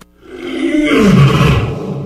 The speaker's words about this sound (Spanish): El rey ha despertado. El rugido se escucha en fundidora.